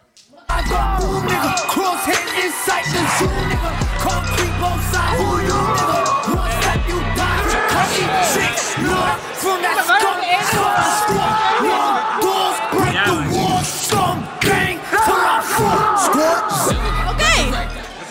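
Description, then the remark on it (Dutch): A crowd of people shouts and yells excitedly all at once, a loud, dense wall of overlapping voices that barely lets up for the whole stretch. “Dat ding staat één seconde aan. Jullie beginnen gelijk te schreeuwen.”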